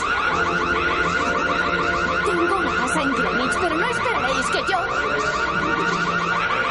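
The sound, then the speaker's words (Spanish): A loud electronic smart-home security alarm installed in a house has been set off and wails continuously in a rapid, repeating warble, while a voice speaks briefly over the blaring tone. “Ahora se ha disparado la alarma.”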